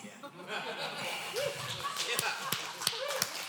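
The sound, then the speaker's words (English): A handful of scattered, sharp claps from an audience at a sermon ring out over a low murmur of voices, sparse and uneven rather than a full round of applause. “You may clap now.”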